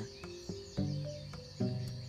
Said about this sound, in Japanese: ちょうどあの鳥のさえずりが始まって鳥ってこんぐらいに大きいんだね今5時半なんだけど5時半くらいから鳥の会話が始まるんだね